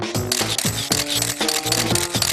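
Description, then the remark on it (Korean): Shutters of several linked cameras click rapidly in a steady series, taking sequential still photos of motion as Muybridge did to study animal movement, about five sharp mechanical snaps in quick succession, fairly loud, with no voices. “이후 영국의 사진가 머이 브릿지는 동물의 움직임을 연구하기 위해 여러 대의 카메라를 연결하여 연속된 동작의 스틸 사진을 촬영해냅니다.”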